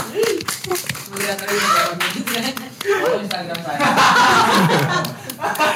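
An audience claps for a discussion participant in a steady patter of many hands for several seconds, mixed with laughter and chuckling from the crowd, the applause swelling louder toward the end.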